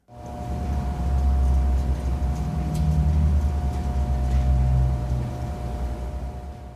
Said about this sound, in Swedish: I, här i köksmiljö så är det antagligen kylskåp som surrar och köksmaskiner och sådär. Så på min restaurang, när det är stängt och ingen är där, redan då låter det så här.